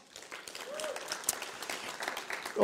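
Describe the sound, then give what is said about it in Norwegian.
An audience at a church gathering claps steadily for a group, a dense patter of many hands building to a sustained round of applause, with a faint voice or cheer briefly rising through the noise. “Skal vi gi dem en god applaus?”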